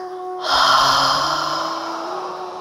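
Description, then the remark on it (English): A long, breathy deep exhale through an open mouth with a soft voiced "ha," after a held breath, starting abruptly and fading slowly over about two seconds, clear, with no talking. “Let's take a deep breath in. Hold the breath and breathe out through the mouth with a ha sound.”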